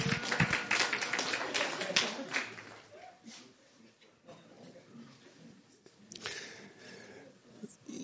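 A burst of applause, loudest over the first two seconds as dense, crackling claps, then thinning into scattered, fainter claps and murmur, with a brief swell again near the end.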